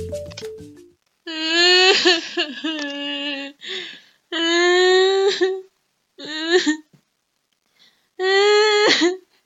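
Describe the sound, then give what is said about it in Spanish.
A girl cries loudly, letting out four long, wavering wails separated by short breathy pauses, with no other voices. “Ay, hola hijita, ¿qué te ha pasado? ¿Por qué estás llorando?”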